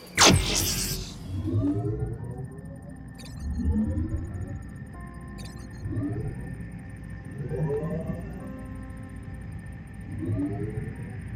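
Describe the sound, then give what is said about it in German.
A synthetic sound effect of virtual balloons being inflated in virtual reality repeats five times in steady succession, each a rising, stretched whooping tone about two seconds apart, after a brief burst of noise at the start. “Ich hatte dort Luftballons gemacht, aber eben keine echten, sondern virtuelle Luftballons.”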